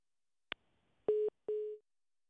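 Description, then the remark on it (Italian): A sharp click, then two short, steady electronic telephone tones, like a dialed call to a guest failing to connect. The tones are clear, with no voices. “Allora, il nostro ospite al telefono è pronto?”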